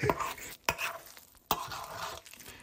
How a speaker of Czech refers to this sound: Nasypu zhruba tak polovinu a zamíchám. A podle hustoty dodělávám a přidávám. Umícháme prostě těsto.